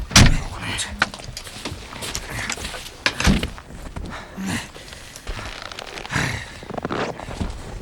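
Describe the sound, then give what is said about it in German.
Car doors open and thump shut a few times, with rustling and shuffling as people climb out of a Beetle stuck nose-first in a snowbank to check it for damage, plus faint mechanical whirring in between. “Äh, lass mich mal kurz aussteigen. Dann, dann will ich sehen, ob der Wagen viel abgekriegt hat.”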